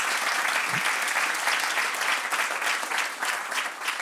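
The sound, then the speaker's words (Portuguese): Sustained applause from an audience for the Art Club after a show there, a dense, steady wash of many hands clapping at once, holding a fairly even loudness throughout with no voices standing out. “Uma grande salva de palmas para o Art Club.”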